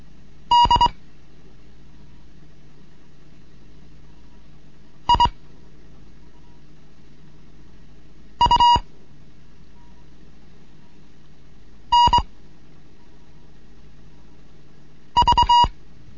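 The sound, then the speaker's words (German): Morse code beeps from a Morse lesson for beginners: five short bursts of a steady mid-pitched tone, some split into quick double pulses, separated by pauses of a few seconds over a faint low hum. “Hier ist Digout 1 Kilo November mit einem Morseunterricht für Anfänger.”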